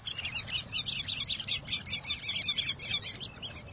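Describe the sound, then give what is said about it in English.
Rapid, high-pitched chirping calls of sanderlings, tiny sandpipers, repeat in quick, overlapping bursts, steady, with a low rumble of surf or wind underneath and no voices. “Though most birds that enliven beaches in summer have gone south, tiny sandpipers called sanderlings are easy to find on winter shores.”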